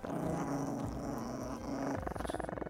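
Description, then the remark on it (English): A toy poodle named Spike and a chihuahua named Renfield growl viciously in a living room, a loud, rough rumble that holds steady for a couple of seconds before breaking into choppier, pulsing snarls at the end. “My toy poodle Spike and my chihuahua Renfield, who were normally friendly to most people, did not like them and growled pretty viciously.”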